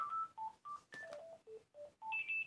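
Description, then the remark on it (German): A telephone sounds off with a quick run of about eight short electronic beeps at shifting pitches, fairly loud, with brief gaps between tones and no one talking. “Bei uns klingelt gerade das Telefon.”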